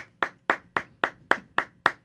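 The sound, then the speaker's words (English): A single person claps hands in a steady rhythm in a studio after award winners are announced, eight sharp, evenly spaced claps over about two seconds, clear with no one else joining in. “You're the only one clapping.”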